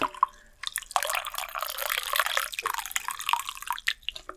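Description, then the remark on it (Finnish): Coffee pours steadily into a cup, clear, a continuous splashing trickle lasting a few seconds and tapering off near the end, with no talking. “Nyt ASMR make kaataa kahvia.”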